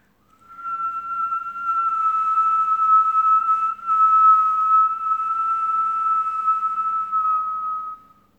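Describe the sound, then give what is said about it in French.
After breathing in through the nose, a person exhales in a long, steady whistle holding one clear note for about seven seconds, fairly loud, with a brief break midway before it resumes and fades out. No talking. “J'inspire par le nez et j'expire en sifflant.”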